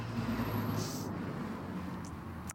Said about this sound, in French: Et voilà, on a des euh, ouvriers qui passent devant, voilà, voilà, en petite voiture, camionnette.